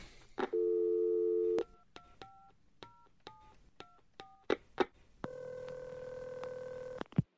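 A steady telephone dial tone, then a quick series of short beeping keypad tones as a number is dialed for a phone call, followed by another long sustained ringing tone. No one speaks.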